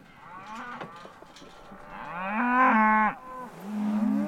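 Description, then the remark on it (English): Several black Angus cattle moo all around in a ranch's grazing fields in western Colorado in fall, with low drawn-out calls overlapping and one loud, strained bellow rising in the middle before another long moo at the end. “These are uh, black Angus, mostly.”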